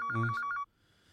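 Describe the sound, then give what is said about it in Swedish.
A phone ringtone chimes in a quick burst of bright, pulsing electronic tones lasting about half a second, then cuts off into near silence. “Nu ringer det.”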